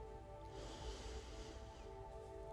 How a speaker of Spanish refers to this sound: Lleva toda la atención a tu respiración. Inhala muy profundo.